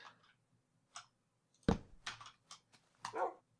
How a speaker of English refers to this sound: Woof, woof indeed.